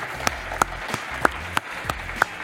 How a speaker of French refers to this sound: Un, grand applaudissement pour Pierre-Marie Perrin. Bravo.